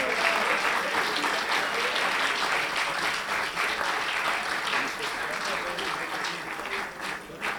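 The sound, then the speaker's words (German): An audience claps steadily for several seconds, a dense, sustained patter of many hands at an even loudness, easing slightly toward the end, applauding in thanks to the crew and the venue. “vielleicht nochmal ein großes Großen Applaus und Dankeschön an die Crew und die Location.”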